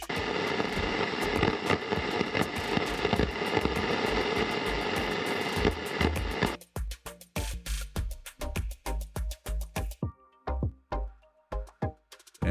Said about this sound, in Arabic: لما بنكون عم نحكي مع حدا لما بيكون عندنا تشويش او ستاتكس من الطبيعة او من آه، حدا تاني عم بحكي على نفس الموجة او قريب على الموجة اللي عم نحكي عليها فبنستعمل كيو ار ام او كيو ار ان وراح اعطيكم اكزامبل عن التشويش